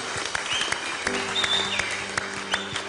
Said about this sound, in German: If you believe that, come on, give the Lord a big clap. Wenn ihr das glaubt, dann lasst uns dem Herrn einen Applaus geben.